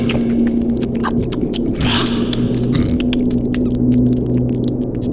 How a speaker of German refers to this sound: Es gibt keine Stille. Man hört ständig, ständig diese Motoren. Und dann dieses ständige Geräusch.